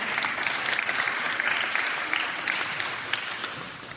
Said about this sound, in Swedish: men de kan få en applåd ändå.